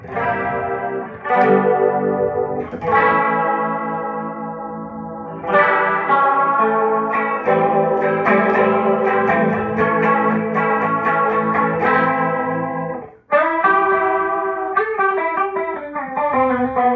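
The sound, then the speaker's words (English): An electric guitar played through the tri-chorus setting of an effect pedal, lush, shimmering and wide, with strummed chords and picked notes ringing out steadily and fairly loud, no voices over it. “Um, let's go tri chorus. Ooh, cool.”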